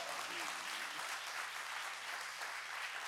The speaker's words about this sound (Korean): 그, 예, 박수 한번 주세요. 박수 한번 주세요.